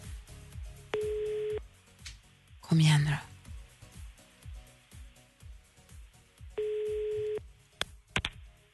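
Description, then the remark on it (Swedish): A telephone ringing tone on a call placed by the radio show Äntligen Morgon, two long steady mid-pitched beeps about five seconds apart, with a person murmuring in between and a brief loud clatter. “Jag ringer inte för att sälja något.”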